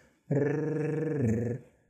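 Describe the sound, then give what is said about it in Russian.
A person imitates a dog's growl as a voice exercise, one sustained, rough, rumbling voiced sound lasting about a second and a half, loud, with no other talk. “Когда маленький ребенок видит, как собака пробегает мимо, он чаще всего передразнивает ее и начинает рычать.”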